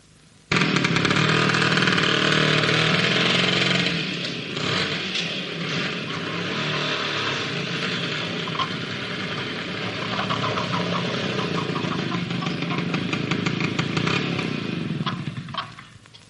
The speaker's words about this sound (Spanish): coge su moto y se dirige a casa de Armandina.